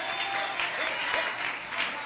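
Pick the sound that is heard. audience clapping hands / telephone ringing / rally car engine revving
audience clapping hands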